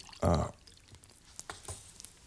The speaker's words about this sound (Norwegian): Jeg må bare drikke vann, jeg blir så tørr.